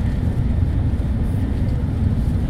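Steady, loud low rumble heard from inside the carriage of a Shinkansen Hikari Super Express bullet train running from Kyoto to Tokyo, a constant droning roar with faint higher hiss and no pauses or voices.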